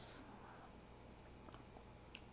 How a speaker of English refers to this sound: I'm going to try my dinner real quick. Oh, okay, I'm better. I need to be seasoned a little more. That's great radio, me chewing into the microphone. I apologize.